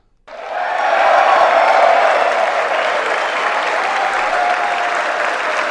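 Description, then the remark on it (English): A large audience bursts into sustained applause during a speech, a dense wash of clapping that starts abruptly, swells quickly and holds steady and loud for several seconds with no voices over it. “Pretty much every 10 to 20 seconds, give or take the issue.”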